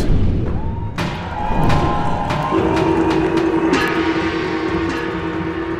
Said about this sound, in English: The villagers once again bombarded the Bakunawa's head with all the noise they could muster, clanging and banging their pots, pans, weapons with all their might with others shouting to add to the noise